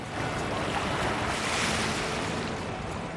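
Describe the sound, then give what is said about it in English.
Ocean waves wash steadily in a rocky cove where the water is usually around 10 degrees, a continuous loud surf roar that swells slightly midway, with no voices present. “One of my earliest memories of being next to the ocean is right here in this cove.”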